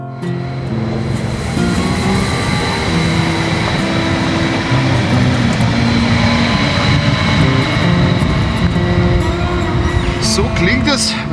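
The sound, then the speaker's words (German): A train pulls out of Herborn station with a loud, continuous low rumble and steady droning engine tones, sustained for several seconds. “ein Zug am Bahnhof Herborn wieder abfährt.”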